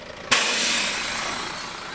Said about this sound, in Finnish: Pohjoisen suunnasta Pohtimolta ja Typpyränperältä tulossa oleva kirjastoauto kääntyy risteyksestä Pellontielle kohti Songan kylää ja pysähtyy Viittilöijän kohdalle bussipysäkille.